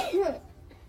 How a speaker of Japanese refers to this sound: くしゃみしちゃった。